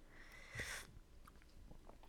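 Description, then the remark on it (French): A single short slurping sip of tea, followed by a few faint mouth clicks and a soft swallow, with no talking. “je prends une gorgée”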